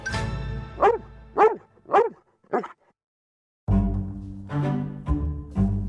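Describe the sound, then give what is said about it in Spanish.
A small dog gives four sharp, yappy barks at an even pace over a low hum, then a brief silence before a loud, steady tonal sound takes over. “¿Ven? Le hubiesen dado el Oscar al perrito.”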